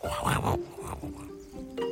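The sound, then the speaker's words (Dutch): A person's voice mimics a cuckoo-like bird call: a few short, steady hooting tones in quick succession, moderately loud, preceded by a brief rougher vocal burst. “soort geluid maakt hij. Als, als een koekoek”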